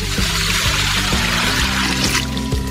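Water pours out steadily in a loud rush, like a bucket being emptied, with a continuous splashing gurgle and no voices.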